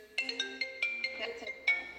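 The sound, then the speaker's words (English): A cell phone ringtone goes off although the phone had been silenced, playing a quick, bright electronic melody of short repeated tones, moderately loud, with no talking over it. “Talk about cell phones.”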